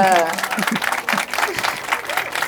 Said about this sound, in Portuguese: Palmas para a ela, malta!